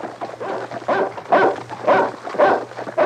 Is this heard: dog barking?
yes